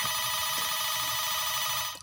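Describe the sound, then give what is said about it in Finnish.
A mobile phone ringtone sounds loud, a steady bright electronic tone holding for about two seconds before it cuts off abruptly as its owner rejects the call. No voices. “Jaha, täällähän soi puhelin meikäläisen, mutta mähän lyön sille luurin korvaa.”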